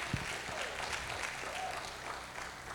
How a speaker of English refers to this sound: And he's not going to quit on what he invested in you. Come on, you can give him a good round of applause.